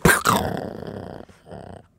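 A mean dog snarls and growls aggressively, a sharp opening burst followed by a sustained rumbling growl that briefly pauses and then resumes before fading out.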